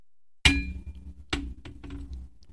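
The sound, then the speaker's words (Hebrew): A sharp glassy clink rings out as a glass bottle is handled and closed, followed a moment later by a second knock and a few softer taps and rattles, with no talking. “אני אסגור את הבקבוק.”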